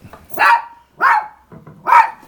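A dog named Scout barks three times, loud, with sharp evenly spaced barks and short pauses between them. No one speaks.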